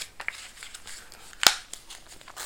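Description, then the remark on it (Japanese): Rustling and crinkling as a paper wrapper is peeled off a plastic cup to separate the paper waste from the plastic waste, with scattered soft crackles and one sharp, louder crinkle midway; no one speaks. “さてこれはこの分別ああこの巻いてある紙が紙ゴミで中身のカップはプラゴミだちゃんと分別できるようになってる素晴らしい”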